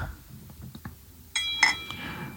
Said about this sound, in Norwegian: Nå tar jeg litt vann her, det er ikke vin.